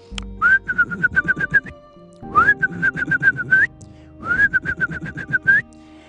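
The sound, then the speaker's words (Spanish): A person whistles an imitation of a bird-song clock chime, the clock's 12 o'clock sound; the clock made different bird sounds depending on the hour. Three short trilling phrases with brief pauses between them, fairly loud, with no talking. “Era un reloj que hacía diferentes sonidos de pajaritos conforme era la hora, era el cantar del pájaro.”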